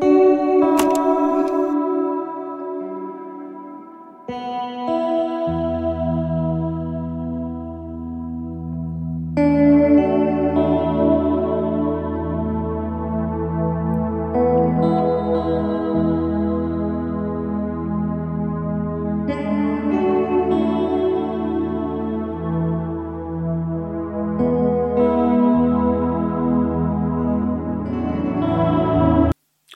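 Ambient electronic music with shimmering, chorus-drenched tones over a steady low drone, sustained layered chords swelling and shifting in waves at a fairly even loudness, no voices.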